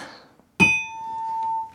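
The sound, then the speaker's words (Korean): A single bright bell ding, the wrong-answer 'ttaeng' bell of a radio DJ's quiz segment, rings out clearly and sustains for over a second before being cut short, with a faint murmur of noise beneath it and no talking. “시원한 땡소리 그리워하셨던 분들께 어, 땡파티 아, 아, 미리 어, 고지를 드리면서 아, 정말 재미를 추구하는 DJ로서 어, 찐웃음 어, 주신 분들께만 딩동댕 드리도록 하겠습니다.”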